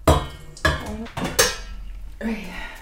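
Pots and pans clatter as someone cooks for their family in Heidelberg, several sharp metallic clanks with brief ringing tails, spaced irregularly, then a softer scraping rattle at the end.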